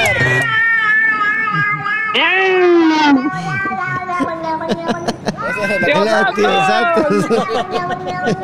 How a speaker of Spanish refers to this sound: ¡Haga miau! Al gatito pues, puso a aullar ahí, lo apaliscaba.